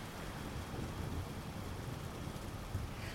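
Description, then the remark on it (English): Heavy rain from a Category 1 hurricane that hit Miami-Dade, Florida, pours down in a steady, dense roar with a low, blustery rumble underneath, like a violent storm. No voices are heard. “The rain was relentless and water started seeping into my bedroom.”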